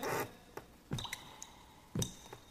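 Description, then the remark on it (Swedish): Water drips, a few distinct wet drops landing about a second apart with faint ringing tails and softer ticks between them. No one speaks. “Att dropparna måste ha tagit sig in i drömmen.”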